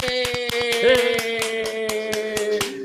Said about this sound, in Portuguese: Palmas para os nossos amigos de hoje.